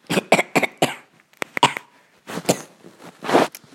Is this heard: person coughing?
yes